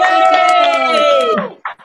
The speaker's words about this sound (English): Uh, ladies and gentlemen, we have a wonderful uh, comic to start the show. Are you ready? Let me hear a hoot and holler.